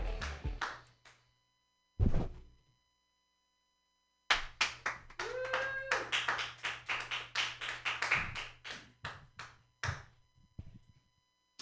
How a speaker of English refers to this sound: Okay, round of applause for me.